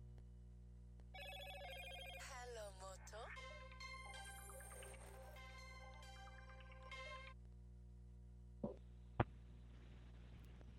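A phone ringtone plays a bright, chiming melody for several seconds over a low steady hum while a call is placed to reconnect a disconnected caller, then cuts off, followed by a couple of sharp clicks.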